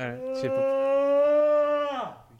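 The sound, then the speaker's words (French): A man gives a long, voiced yawn, fairly loud, holding a steady tone for about two seconds before sliding down in pitch as it trails off, with a brief whine-like quality. “et je le vois bailler, voilà.”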